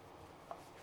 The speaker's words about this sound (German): Ähm, also von rechts nach links einmal reinschneiden, dann legt ihr das Messer flach hin. Auch von rechts nach links. Kleine rein, sodass in der Zwiebel so kleine Stiftchen entstehen.